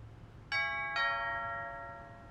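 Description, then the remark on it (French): A two-tone doorbell chime rings once as someone presses the bell, ding then dong, clear, its bright tones lingering and fading slowly over a low background hum, with no voices. “Tristan acquiesça lentement, puis se résolut enfin à appuyer sur la sonnette.”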